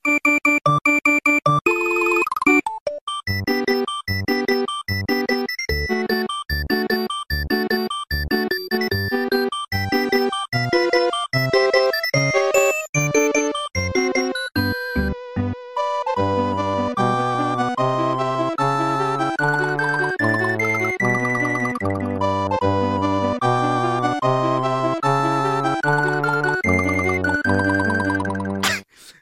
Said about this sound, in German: es ist auch elektronische Musik. Es hat ein bisschen weniger Bass als die Musik, die du sonst so abfeierst im Stream.